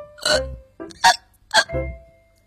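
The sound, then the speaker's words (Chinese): A voice imitates a kitten hiccuping after it secretly licked cake cream on its birthday: a handful of short, squeaky, voiced gulps in an uneven rhythm, moderately loud, with no other talk around them. “话刚说完，小猫就开始打嗝了。”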